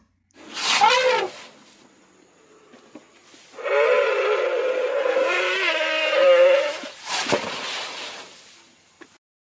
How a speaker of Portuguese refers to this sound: Você falou de elefante, é era um elefante mesmo.